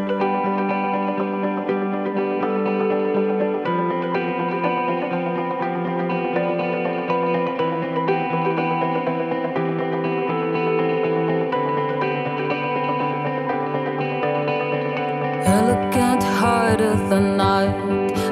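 A rock band song plays steadily, layered effect-heavy guitars holding sustained chords, then bursting into a loud, heavy section with pounding drums and distorted guitars near the end. No one speaks.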